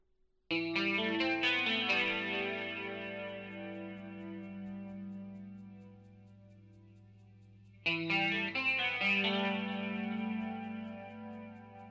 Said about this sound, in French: il y a une troisième guitare et celle-ci intervient uniquement, vous allez voir, à la partie du chorus. Il y a un chorus effectivement à la fin de ce morceau, avant la toute fin, toute fin, avec la répétition du refrain.